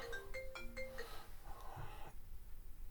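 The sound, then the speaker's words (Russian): A phone ringtone signalling an incoming call plays a short, bright melodic phrase of quick tonal beeps for about two seconds, then cuts off, leaving quiet room noise with a low hum. “то есть вот мне, видите, звонят.”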